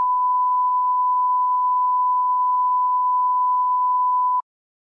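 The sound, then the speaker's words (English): A continuous censor bleep: one steady, mid-high pitched tone held at an even, loud level for about four seconds before cutting off abruptly. No voices are heard. “You gotta bleep that out.”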